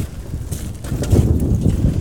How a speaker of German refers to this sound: Hier ist schon wieder so ein äh, so, so, so ein Mittelalterwagen mit flatternden Bändern. Das ist eigentlich ganz interessant vom Geräuschfalt her.